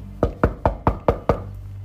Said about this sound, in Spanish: Rabshah tocó la puerta